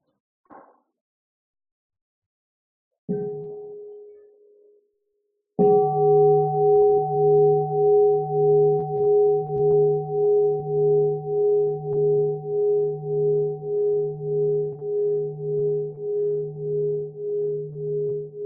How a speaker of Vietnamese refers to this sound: À, xin sư cầu thỉnh một tiếng chuông cho mọi người buông thư